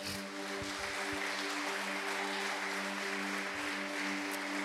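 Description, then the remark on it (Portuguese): An audience applauds the Lord in thanks, a dense wash of clapping that stays at an even level for the whole stretch, with steady low sustained tones humming underneath and no one speaking. “Então vou te pedir, aplauda o Senhor bem forte, agradeça a Ele.”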